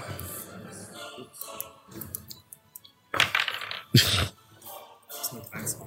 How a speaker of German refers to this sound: Und dann würfeln Sie einen Angriff.